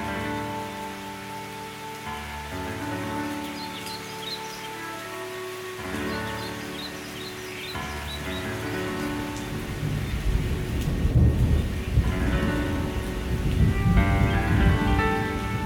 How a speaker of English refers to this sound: Imagine you are sitting at the shore in a safe and dry place as you are watching a stormy scene in front of you. Visualize the dark sky as it meets the water.